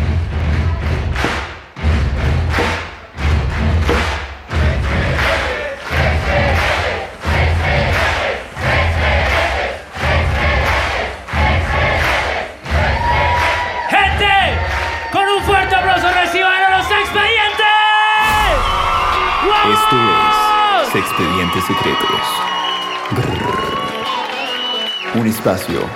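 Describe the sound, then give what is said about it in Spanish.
A loud live audience shouts a chant together in steady, evenly spaced bursts, repeating over and over before breaking into scattered cheering, whoops and rising yells. “Cuando yo levante la mano, todo el mundo va a gritar: ¡Se expedientes! ¡Se expedientes!”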